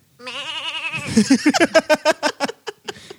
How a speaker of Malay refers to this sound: Kita buat apa, kambing? Kambing tu lah.